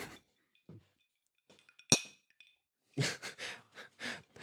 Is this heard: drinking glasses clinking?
yes